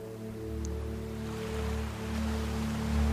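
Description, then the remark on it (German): Soft ocean surf washes steadily onto a beach at sunset, rising and falling in slow, gentle swells beneath a sustained low humming drone, with no voices present. “Und ich lasse dich nun einmal kurz alleine am Strand beim wunderschönen Sonnenuntergang und wir lauschen den Wellen und zählen dabei.”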